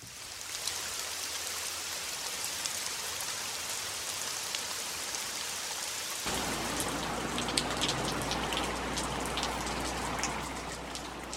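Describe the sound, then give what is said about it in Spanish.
Steady rain patters on a surface, a dense wash of drops that grows fuller about halfway through, with a low rumble underneath and no voices. “Por esta razón este programa sería ideal si lo pudieran escuchar mientras llueve, pero como esa circunstancia no puedo controlarla, es que usaré a lo largo del programa, como música de fondo, el sonido de la lluvia.”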